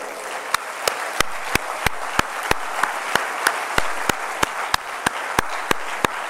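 An audience applauds the Savior, Jesus, at Christmas, steadily, with sharp, evenly spaced claps about three per second cutting through a continuous wash of scattered clapping. No one speaks.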